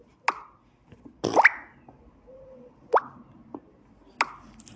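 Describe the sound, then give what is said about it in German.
Smartphone message notification tones, played from the phone's sound settings: several short, bubbly plopping blips at irregular intervals, clear, with a brief soft hum between them and no talking. “Solche Töne kommen dann, wenn ich eine Nachricht bekomme.”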